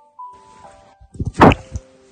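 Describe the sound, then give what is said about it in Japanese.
A cat swatting with its paw: a quick run of soft, dull thumps ending in one sharper knock, followed by a lighter tap, after a faint steady tone fades out. “猫パンチしてる。”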